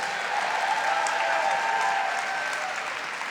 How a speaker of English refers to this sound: Thank you again. That was beautiful performance. Can we get another round of applause for that beautiful performance?